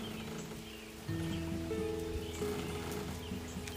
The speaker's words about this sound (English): Thank you for this rain.